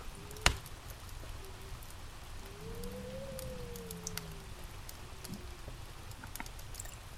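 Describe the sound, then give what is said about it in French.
A log crackles in a fireplace, with one sharp loud pop near the start, then scattered small snaps over a steady soft hiss and a faint whistling note. “Les entendez-vous crépiter Entendez-vous les craquements brusques et sec de la bûche qui se consume.”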